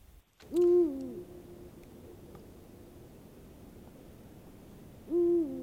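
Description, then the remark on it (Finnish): A Eurasian eagle-owl gives two deep, resonant hoots, each about half a second long and several seconds apart, over a steady low background hiss. “Pistetään huuhkeja sitten vielä.”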